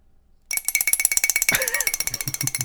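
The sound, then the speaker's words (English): While someone makes a cup of tea, a spoon is banged rapidly from side to side against the sides of a teacup instead of stirring, a steady stream of bright, ringing taps, with a brief vocal sound partway through. “And he was like, bang the spoon from side to side rather than stirring it.”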